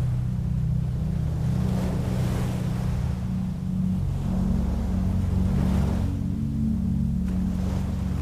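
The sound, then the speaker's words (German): Gentle ocean waves roll onto a sandy beach and wash back in slow, repeating, steady swells, with a constant low rumble beneath them and no voices. “Du setzt dich schließlich auf den noch vom Tag warmen Sand und beobachtest, wie die Wellen sanft an den Strand rollen und sich wieder zurückziehen.”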